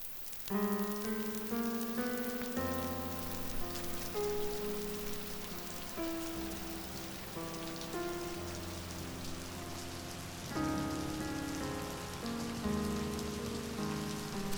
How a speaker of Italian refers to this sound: New York, ottobre 1949. Piove da sempre su questa maledetta città e danni sulla mia indifferenza.